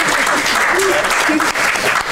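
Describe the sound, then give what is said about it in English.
A double clap rings out amid steady, dense applause, a loud, continuous wash of many hands clapping with no pause over roughly two seconds. “So we made, there you go, there's a double clap.”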